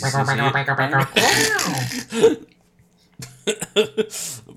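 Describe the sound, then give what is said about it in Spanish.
Abrupt vocal catches like hiccups, a few sharp bursts with breathy throat noise between them, then a brief silence before more short voiced jolts. “Me ha entrado un hipo, tío.”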